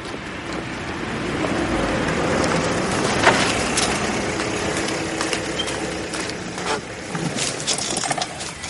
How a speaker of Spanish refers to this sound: Por la tarde, el inspector y Francisco llegan en coche y aparcan en una calle.